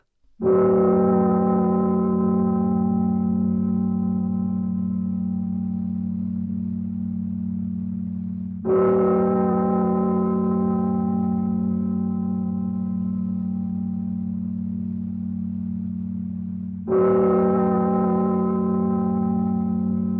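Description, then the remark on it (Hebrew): Recorded church bells, slowed down in the studio and added at the start of a song, toll three times, roughly eight seconds apart, each a deep, loud strike with rich overtones that hums on and slowly fades into the next. No voices. “באולפן, לאחר סיום ההקלטה, התווסף לתחילתו של השיר קטע של פעמוני כנסייה שהואט כדי לתת נופח דרמטי ועצוב יותר.”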